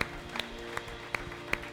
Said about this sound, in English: Come on, can we clap our hands for anybody that made that decision for the first time?